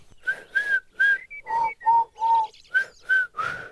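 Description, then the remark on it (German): A person whistles an imitation of a lark's song, a string of about nine short, bright whistled notes in a quick, steady rhythm with slight pitch shifts, clear with no talking. “Klingt nicht so richtig nach Lerche.”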